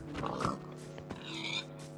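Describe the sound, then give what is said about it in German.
A pig in a video game oinks a few times in quick, nasal grunts with a steady electronic hum underneath, moderately loud, with no talking. “Ey, da höre ich die Schweine.”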